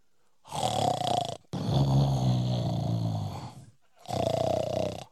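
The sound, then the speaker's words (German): Three loud, rasping snores from a wolf sleeping under a tree, each a long rough breath with a short pause between, the middle one longest and deepest, with no other sounds around them. “Hij snarre so, dass die tuppen von dem Baum bier werden.”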